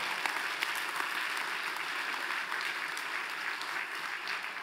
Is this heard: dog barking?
no